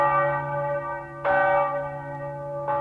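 Church bells ring out in slow, steady strokes, three clangs about a second and a half apart, each leaving a rich, humming resonance that lingers into the next. No one speaks.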